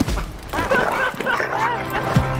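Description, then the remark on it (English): A dog yips and barks in short bursts amid a busy, noisy background, with some brief whining tones mixed in. “Whatever happened to you, dog? You used to be a legend.”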